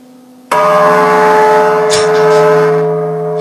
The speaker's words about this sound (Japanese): 除夜除夜の鐘をお届けしております